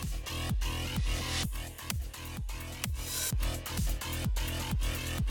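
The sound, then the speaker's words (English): A punchy bass drum audio cue in a rhythm game thumps in a steady, regular pattern, roughly twice a second, layered under a busy, full electronic beat with bright hi-hat-like sizzle on top, for the player to repeat with the left trigger. No one speaks. “For the bass drum, use the left trigger.”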